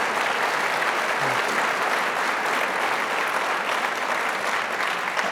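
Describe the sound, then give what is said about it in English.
A crowd applauds steadily for about five seconds, a dense, even wash of many hands clapping at constant loudness, with no voices standing out. “I, I, I was going to invite I was going to invite applause for the precisely the same point for, for all he has done to inspire Americans from presidents to all of us to educate ourselves about American history.”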